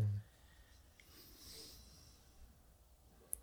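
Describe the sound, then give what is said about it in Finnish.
A dog snores softly, a faint, drawn-out raspy breath swelling and fading, with a brief tiny click near the end. “Täällä rupeaa koira, koira ku, rupeaa kuorsaamaan.”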